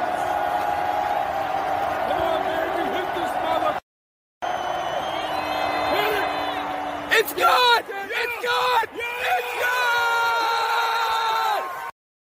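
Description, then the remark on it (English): Loud excited screaming and yelling after a game-winning field goal, voices straining in long, sustained shouts of "It's good" over a noisy crowd-like background, with a brief cutoff early on before the frenzied cheering resumes. “that's because he was screaming, "It's good, it's good, it's good."”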